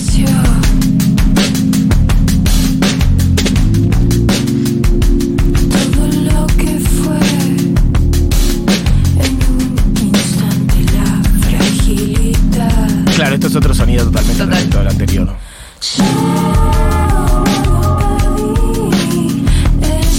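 A band's recorded song plays loudly and continuously, with a steady driving drumbeat and thick bass under layered instruments, briefly cutting out for a moment near the end before resuming.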